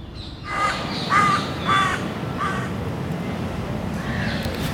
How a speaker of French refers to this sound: Le matin de notre rencontre, la ville était calme et on pouvait entendre les oiseaux chanter.